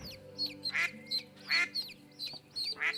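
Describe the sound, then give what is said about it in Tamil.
A mother duck quacks repeatedly on seeing her newly hatched ducklings, about seven short nasal quacks in quick, uneven succession, clear over a steady low musical hum in the background. “ஒவ்வொரு முட்டையாக உடைந்து அந்த வாத்தினுடைய குஞ்சுகள் ஒவ்வொன்றாக வெளிவந்தன தாய் வாத்து தன்னுடைய குஞ்சுகளை பார்த்ததும்”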